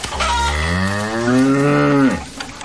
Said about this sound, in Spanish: Vaca.